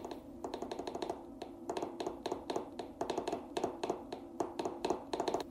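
Rapid, steady clicking of a telegraph key being tapped by a radio operator in a radio room, in quick irregular bursts of short strokes, fairly quiet, with no voices.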